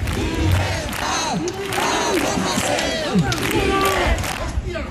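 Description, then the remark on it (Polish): A large, angry crowd of protesters in the streets of Barcelona and other Catalan cities, Spain, demanding the release of a rapper, shouts and chants loudly in unison, many voices overlapping with rising yells and cries, a dense continuous roar that fills the whole scene. “Tego samego dnia na ulice Barcelony i innych katalońskich miast wyszły tłumy rozgniewanych ludzi, domagających się uwolnienia rapera.”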